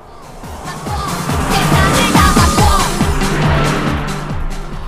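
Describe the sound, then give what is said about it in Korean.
A car passes by at high speed over a steady engine and road roar, the sound swelling in the middle and easing off, with faint music playing from the car underneath. “차가 지나갑니다. 차 소리와 함께 음악 소리 들려요.”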